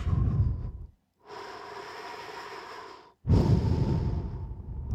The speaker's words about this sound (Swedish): Jag ska ta ett djupt andetag bara. Nu ska vi se. Man har lärt mig att man ska dra in fem så här. Så ska man andas ut på sju. Två, tre, fyra, fem, sex.